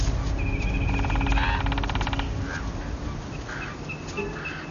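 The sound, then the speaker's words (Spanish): Forest ambience: a rapid rattling call stutters briefly near the start, while scattered bird chirps and a steady insect-like buzz carry on at a moderate level. “Más tarde, ellos caminan por el bosque.”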